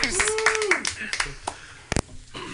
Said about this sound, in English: let's have a nice round of applause